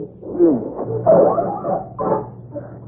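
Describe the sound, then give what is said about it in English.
Wolves closing in growl and bark in a tense, overlapping run of snarls and short yelping barks, fairly loud, with rough low growls rising into sharper bursts over about three seconds and no talking. “Oh, wolves! Wolves! And they're closing in.”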